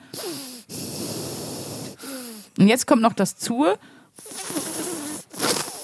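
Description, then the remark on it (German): Two long, sharp, loud inhalations, one through each nostril, each a rushing hiss, with a man speaking briefly in between; the right nostril has been weaned off nasal spray and the other switched to cortisone spray. “Und jetzt habe ich schon, das rechte ist entwöhnt, ihr hört es am Atemgeräusch, Leute.”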